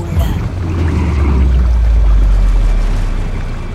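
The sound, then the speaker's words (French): A ship founders and sinks in a stormy sea on its first crossing: a heavy, continuous low rumble with churning, rushing water that stays loud for the whole few seconds, with no voices. “Lors de sa première traversée, pris dans une folle tempête, son navire fait naufrage, il coule.”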